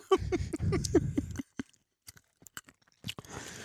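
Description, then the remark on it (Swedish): Wet smacking and chewing of an orange, a dense burst of mouth noises that thins out into scattered sticky clicks and smacks, with no talking. “Ja, ska vi avsluta den här podden med två minuters smaskande av apelsin då?”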